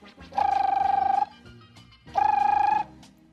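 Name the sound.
telephone ringing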